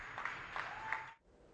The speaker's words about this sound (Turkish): Evlerinde karantinada olan İspanya halkı sağlık çalışanlarının bu mücadelesine destek vermek için sosyal medyada kampanya başlattı. Pencere ve balkonlara çıkarak sağlık ekiplerini alkışladılar.